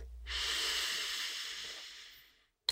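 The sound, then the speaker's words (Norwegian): A long, steady inhale from the belly through the nose, a soft airy rush lasting about two seconds that gradually fades, with no talking, followed by a brief click. “Og så puster du godt inn fra magen og gjennom nesen da.”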